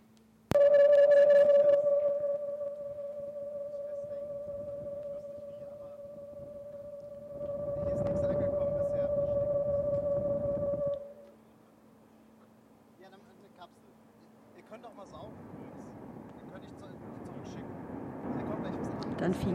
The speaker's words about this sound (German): Also da wurden dann auch so richtig modulierte Signale durchgeschickt. So von so einer 4 PSK hatte ich gehört.